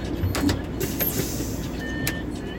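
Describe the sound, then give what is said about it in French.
Steady low engine rumble and road noise fill the space, with a few brief clicks and a thin whine, inside an overcrowded city bus moving slowly into central Paris toward République, without clear talk. “pardon je m'extirpe du bus trop plein pour finir le trajet à pied.”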